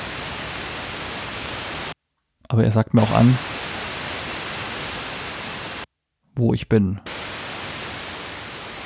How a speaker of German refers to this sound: Oder man kann sogar auch noch ja ganz manuell wie früher am Radio kurbeln. Ich mache das mal. Ich drehe jetzt hier am rechten Sendersuchrad. Sie hören 90,25 Megahertz. Genau, dann kriege ich halt unter Umständen nur Rauschen.